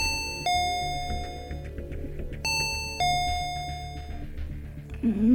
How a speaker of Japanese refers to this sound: インターホンを押してみる。